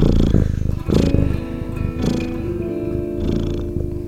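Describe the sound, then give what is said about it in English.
A cat purrs along with a song in a continuous low rumble that swells with each breath roughly once a second, with a faint steady tonal hum running underneath. “Have Francis purr along with you.”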